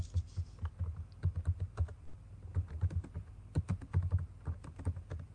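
Rapid, forceful typing on a computer keyboard, the keys hammered hard, with dense clicking keystrokes in quick irregular bursts, steady throughout, no voices.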